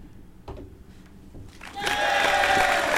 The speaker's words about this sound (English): Wait, no. I have applause for this very moment.